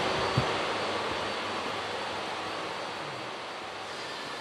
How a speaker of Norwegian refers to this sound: Nå må vi gå opp her, for vi hører at byggearbeidene er i full gang. Vi går nå opp i den nye store hallen her.